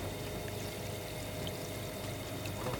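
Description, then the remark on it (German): A steady, low underwater rumble of a distant ship engine, heard through a hydrophone from a research boat a few kilometres off the Ligurian coast, droning continuously with a faint tonal hum beneath a wash of hissing water noise; no voices. “Zu hören ist aber nur das ferne Rumoren eines Schiffsmotors.”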